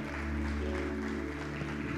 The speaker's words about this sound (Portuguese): Você pode aplaudir o nome do Senhor?